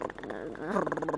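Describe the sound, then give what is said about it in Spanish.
A very old, badly running air conditioner runs in the background, a loud, rough droning hum whose pitch wavers and swells, with a rapid rattling pulse running through it and no one talking. “Tipo ese ruido que se escucha de fondo es mi aire acondicionado hermoso, que de sí que enfría, pues si no...”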